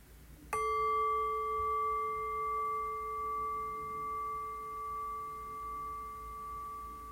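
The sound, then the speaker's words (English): A single meditation bell is struck once, ringing out with a clear, pure tone and bright overtones that hum steadily and fade very slowly over several seconds with no voices. “So, ringing the bell.”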